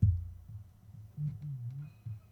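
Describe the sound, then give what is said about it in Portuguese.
A mobile phone vibrating with an incoming call against a hard surface, giving a series of low, rattling buzzes in short repeated pulses, fairly quiet, with no voices. “É o meu telefone.”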